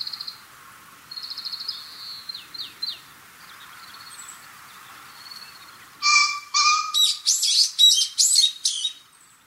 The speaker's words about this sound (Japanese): 新潟県村上市日本海に沿って瀬波海岸があります海岸と並行して 4km にわたって続く暴風林に朝霧が流れていく中突然キジが鳴き始めました